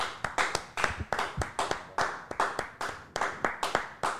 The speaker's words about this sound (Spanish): De verdad que un aplauso, en verdad un aplauso.